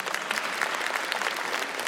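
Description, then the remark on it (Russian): Sustained audience applause from a St Petersburg audience at a live show, a dense wash of many hands clapping at a steady, even loudness throughout, with no voices standing out. “Ну, э, во многом благодаря самому Питеру, во многом благодаря петербуржцам, которым громовые аплодисменты еще раз.”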